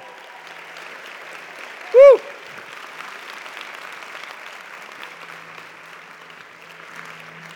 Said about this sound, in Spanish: Vamos, si alguien va a aplaudir, tiene que hacerlo con más ganas el día de hoy.